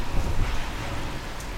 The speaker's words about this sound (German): Dunkle Wolken, Regen, Muskelkater.